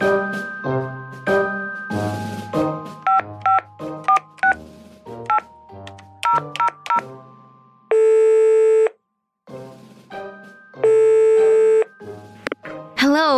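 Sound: telephone ringing tone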